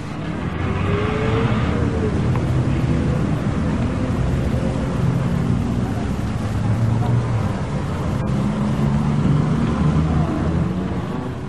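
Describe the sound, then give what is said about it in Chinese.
A car driving off toward the Bellony apartment, its engine giving a steady low rumbling drone over broad road noise. The sound stays loud and even for the whole stretch, with no clear fade. “青年国王这样说完，车子就驶往白洛尼公寓了。”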